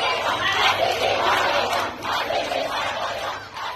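A crowd of protesters, young female students who pulled off their hijabs during a visit by Ebrahim Raisi, chants 'death to the dictator' in unison, voices rising and falling in loud rhythmic waves that fill the whole clip, with no other sound standing out.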